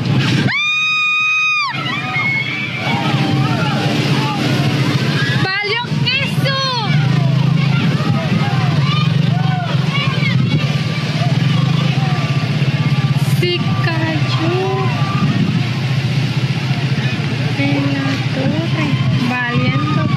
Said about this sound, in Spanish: pues sí, escucharon el grito ahí de esta persona, de esta mujer, valió queso.